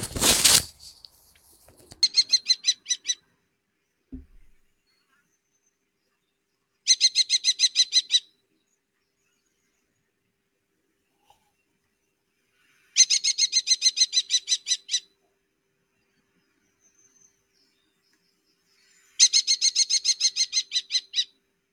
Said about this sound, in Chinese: 你们听到了吗？刚才这个就是红隼的叫声。刚才又是那只红隼被喜鹊打下了电信塔。